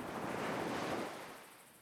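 A single ocean wave surges onto a beach beyond the dunes with a loud, hissing rush, then slowly recedes and fades as the wash draws back. No voices are present.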